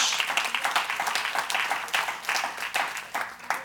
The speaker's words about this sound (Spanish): Den un aplauso a nuestro gran Dios.